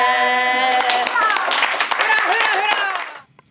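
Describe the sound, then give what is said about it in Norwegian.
A crowd at Teater Vestland cheers and claps loudly, celebrating the culture minister scrapping the regional reform for culture, with excited voices whooping over dense, steady applause that fades out near the end. “Jubel fra Teater Vestland.”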